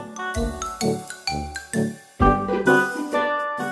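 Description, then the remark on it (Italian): A doorbell-like chime rings out a quick melody of bright, sustained tones, about a dozen notes in steady succession, clear with no voices. “Io che sono al campanello, quando vado a editare la puntata, penso che sia il campanello, mentre sto editando la puntata mi alzo.”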